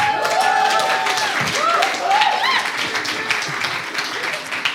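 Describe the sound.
Steady audience applause, a dense crackle of many hands clapping at an even loudness throughout, with some whoops and voices rising over it partway through.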